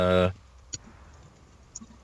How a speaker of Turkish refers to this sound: Klavye sesleri gelmeye başladı. Tıkır tıkır.